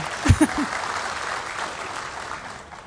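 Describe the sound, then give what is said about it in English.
An audience claps in a steady, dense wash that holds evenly and fades slightly at the end, with a couple of short voice sounds near the start, applauding the managing director of My Brother's Keepers Alliance. “Yes, you can clap.”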